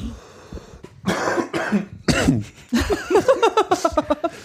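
A loud coughing fit: a few harsh separate coughs, then a rapid string of shorter hacking coughs trailing off. No one speaks.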